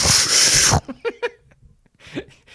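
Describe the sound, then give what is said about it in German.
A voice imitates a powerful toilet flush triggered by pressing the flush button, with a loud, breathy whooshing burst lasting under a second, followed by a few short voiced sounds and a brief murmur. “Und dann kommt immer so, wenn du auf die Spülung drückst, so.”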